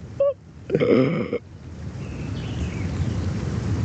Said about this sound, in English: And I see how difficult, oh, that nice wind, how difficult it was all my life trying to get to that point. I just felt the rain. Yo, I just felt the rain.